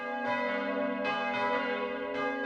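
Three church bells by Perna of Passau, 1.3 tonnes in total, ring steadily in the bell tower of the Autobahnkirche in Himmelkron. Fresh strikes land about once a second over a sustained, humming drone of overlapping tones. The pealing is loud and continuous, with no voices present.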